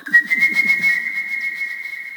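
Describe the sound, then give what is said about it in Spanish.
A person whistles a steady, piercing high note imitating a small bird's song, with a faint rapid warble beneath it at first, fairly loud throughout. “Y empieza de repente escucha un pajarito”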